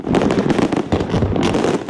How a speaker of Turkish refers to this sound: Harcamadan kaçmayan Dubai yönetimi 2014'e girerken büyük bir organizasyonla tam 400 bin havai fişek patlattı.